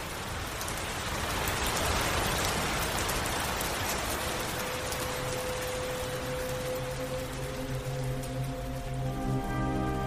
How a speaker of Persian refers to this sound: سرمو گذاشتم روی میز چوبی و بستم و چند دقیقه فقط به صدای قطره های بارون گوش دادم